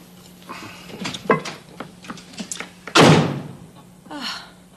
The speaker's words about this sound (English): Why does he always have to slam the door?